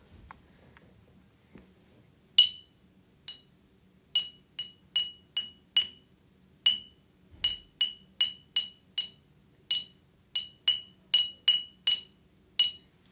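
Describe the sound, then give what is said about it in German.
A pen taps a glass bottle about nineteen times, making bright, ringing clinks in an uneven rhythm, some clustered quickly and others spaced apart, with faint low hum underneath and no talking. “Ich habe den Stift an, äh, an eine Flasche gehauen.”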